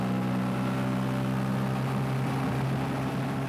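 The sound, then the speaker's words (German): A motorboat engine drones steadily, a constant low hum with a faint rumble and no change in pace or loudness, as the boat travels the branching river arms of the Niger Delta in Nigeria. No voices are heard. “Nach einer guten halben Stunde im Motorboot ruft der Bootsführer plötzlich Hands up, Hände hoch.”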